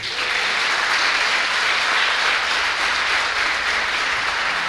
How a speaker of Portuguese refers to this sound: Amém? Você tem coragem de aplaudir Jesus?